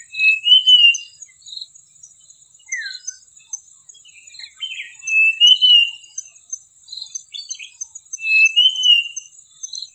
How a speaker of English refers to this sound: This is the song of a common Iora, a sparrow-sized black and yellow bird. It is yellow below and the breeding male is entirely black above bearing two white wing bars. The tail is short like in a sparrow, but square-tipped and dark in appearance.